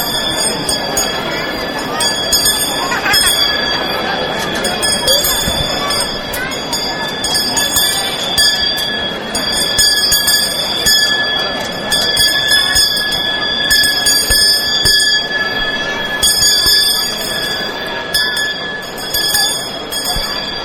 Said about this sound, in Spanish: dos niños servidores justo a ambos lados también del muñidor que podemos escuchar en estos momentos cómo hace sonar esas campanas que anuncian la llegada de la cofradía del Santísimo Cristo yacente y Nuestra Señora de la Soledad.